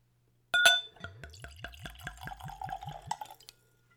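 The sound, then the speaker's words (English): A Glencairn whiskey nosing glass clinks once, then whiskey glugs rhythmically from the bottle into it, neat and at room temperature, about eight quick pulsing gulps, clear, ending abruptly with no voices. “Let's go for a pour.”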